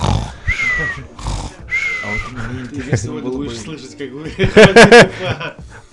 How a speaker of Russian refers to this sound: … спит. … спит, храпит. Это … на связи. Я слышу, как храпит ….